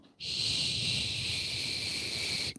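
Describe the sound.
A voice imitates the hissing that came from an open, switched-off tumble dryer in a bathroom: one steady, sharp hiss held for over two seconds, fairly loud, then cut off abruptly.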